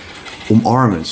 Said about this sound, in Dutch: En wat je nu hoort is een konijn, jongens.